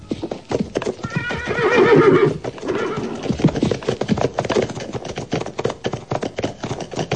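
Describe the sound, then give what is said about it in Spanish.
A horse whinnies loudly and clearly near the start, while hooves clip-clop in a steady rhythm throughout the whole stretch as riders mount their horses, with no voices present. “Montamos a caballo”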